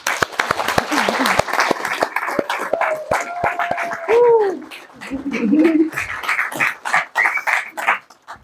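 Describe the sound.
An audience claps steadily for several seconds to welcome the day's guest, sharp claps overlapping into a lively burst, with a few voices calling out and cheering partway through before the applause tapers off.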